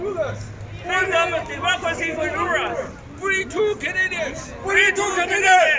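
A crowd of many protesters on the steps of a courthouse in Canada shouts and chants together outdoors against Chinese oppression, a dense, continuous babble with rising bursts of yelling, loud, with no single voice standing out.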